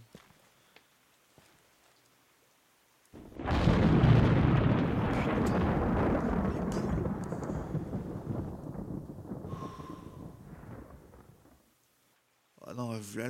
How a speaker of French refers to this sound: coup de tonnerre. Alors je pense que vous l'avez entendu aussi. Oh, c'était euh, flippant là. c'était quand même un sacré coup.